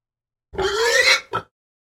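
A pig grunts close by, one drawn-out grunt rising into a squeal, then a quick short snort, with silence around it.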